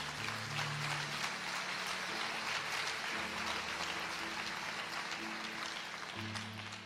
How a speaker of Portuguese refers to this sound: Pode aplaudir.